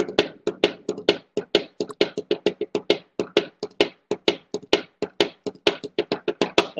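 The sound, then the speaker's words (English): Drumsticks rap out a quick, steady drum cadence on a tabletop at home, about four or five crisp, woody taps per second with shifting accents. They are played alone, with no voices. “I'm getting some sticks here in my house. If you can hear it, can, can you hear this?”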